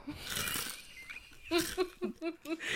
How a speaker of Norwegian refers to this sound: Hva er bedre enn å høre på podkast og bare høre knasj?